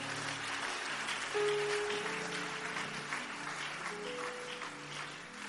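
An audience claps steadily for several seconds as a clap offering, a dense, even patter of many hands, with a few low sustained musical notes held underneath.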